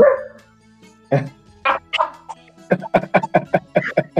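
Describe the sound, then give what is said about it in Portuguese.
A person imitates a dog barking inside a classroom: a few separate barks, then a quick run of about eight short, sharp yaps in steady rhythm. “Aí eu imitei um cachorro dentro da sala de aula.”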